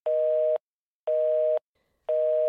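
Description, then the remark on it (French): A telephone busy signal from a call that goes unanswered: three steady, clear beeps of about half a second each, evenly spaced by short silences, with nothing else audible. “Il répond pas au téléphone.”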